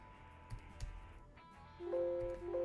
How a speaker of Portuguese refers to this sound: esse barulhinho, se você ouviu, é meu computador dizendo que não tem,